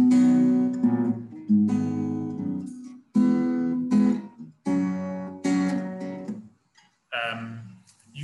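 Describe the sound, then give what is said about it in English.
A slow progression of six sustained chords on an instrument, including an A minor 7 and an F, each ringing about a second and a half before the next, the bass line stepping downward. Clear, with no voices. “Um, so that would go, um, could sound a bit like this.”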